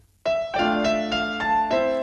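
An orchestral passage from a symphony's introduction: full, sustained chords struck in a steady series of about six accented attacks, loud, with no voices.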